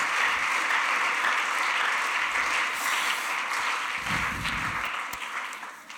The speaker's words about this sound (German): Herzlichen Applaus für dich. Vielen, vielen Dank.